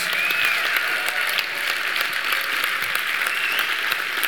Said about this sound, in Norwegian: så dere må gi han en kjempeapplaus, og så må du komme fram og få en applaus.